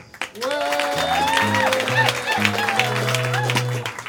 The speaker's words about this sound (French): On applaudit trois secondes.